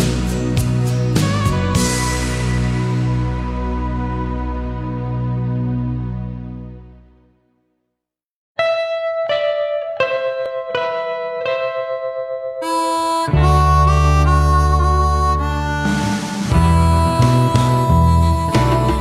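A male-vocal pop love song recording: one track's rich, sustained harmonies fade into a brief silence, then a new gentle ballad begins with soft plucked notes and warm chords, building fuller, with no spoken voices.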